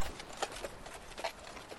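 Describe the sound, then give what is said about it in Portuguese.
Hooves of a tall, strong black horse carrying a rider clip-clop in a steady walking rhythm, a handful of crisp knocks over a soft hiss, moderately quiet, with no voices. “Montava um cavalo imponente, alto, forte, com a pelagem tão negra que parecia refletir tons de azul.”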